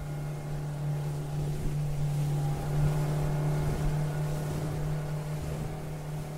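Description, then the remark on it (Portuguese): A motorboat engine drones steadily as the boat is driven at high speed across a lake, a strong low hum with harmonic whine, water and wind rushing beneath it throughout, no voices present. “E lá vai você guiando a lancha no lago em alta velocidade, com uma ansiedade crescente de que você nunca vai chegar lá.”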